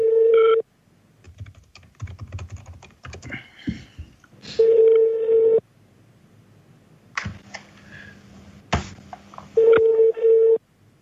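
Telephone keypad tones as someone dials a backup number: three loud, steady electronic beeps, each about a second long, separated by pauses filled with soft clicks and handling noise. No one speaks.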